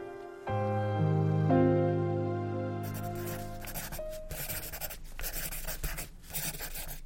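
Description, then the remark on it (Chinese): A few sustained musical notes give way to the scratchy, irregular strokes of a pencil stub writing a line of large characters in the middle of the back of a torn-off exercise-book cover, steady bursts broken by brief pauses, with no voices. “在纸的背面正中央，大大的写了一行字”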